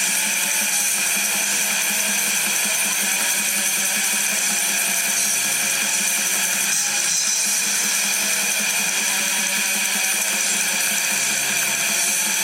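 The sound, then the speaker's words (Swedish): A harsh, dense music riff grinds on relentlessly and loudly, its abrasive, distorted texture repeating in a hammering, anxious loop with no voices over it. “Lyssna på den här ångestskapande riffen som kommer här nu.”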